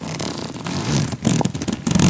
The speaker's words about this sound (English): basically we have uh, literally zippers on two different sections with like a wall, a backpack kind of wall in between. Yeah. Um, some good zip zip noises. Could we get a, a nice slow zip?